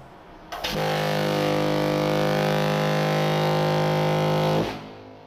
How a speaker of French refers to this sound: Dans la deuxième partie de l'épisode, on verra comment tirer parti d'une sirène de paquebot, que voici.